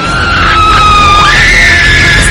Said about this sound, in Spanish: El suspense empieza en el estómago. Te sube por la garganta. Y sale como un grito.